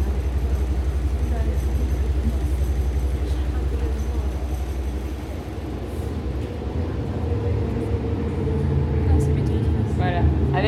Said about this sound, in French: le bruit, on se rend plus compte qu'on est vraiment dans le côté métro.